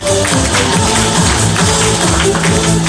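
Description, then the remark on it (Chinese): Steady audience applause for the owner of a Porsche repair shop in Guangzhou, a dense, even patter of many hands clapping at full volume throughout, with a faint tonal hum running underneath and no voices. “要不要给他掌声鼓励一下？”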